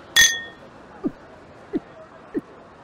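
Glasses clink together once in a toast celebrating someone's new start, a bright chime that rings on for about a second, followed by three soft, low thumps spaced evenly apart.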